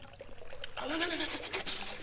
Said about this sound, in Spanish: Efectivamente, Pulgarcito había saltado enseguida de la cama y ya tenía la cabeza debajo del grifo.